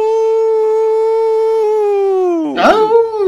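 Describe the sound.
A person imitates a wolf howl as a co-host nicknamed the wolf is introduced on the program Fuera del Control: a single long, loud, steady note held for a couple of seconds, then sliding down in pitch and breaking into a rough, breathy tail.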